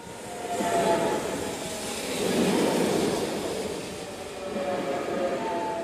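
A train rolls in along the rails with a steady heavy rumble that swells and eases, thin metallic squealing tones riding over it. Close and fairly loud, with no voices.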